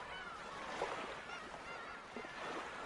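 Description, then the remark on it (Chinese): A flock of seagulls with overlapping high, gliding cries and a few soft fluttering bursts, heard over a steady, loud wash of noise that never lets up. “你好像是听到了成群的海鸥。拍动翅膀的声音”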